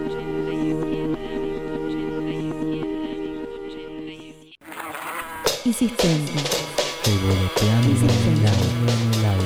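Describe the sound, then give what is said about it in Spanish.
A steady, droning buzz of a fly goes on for about four seconds, then cuts off as loud, punchy music kicks in. “Revoloteando en el aire, llega la Mosca Radio 87.7”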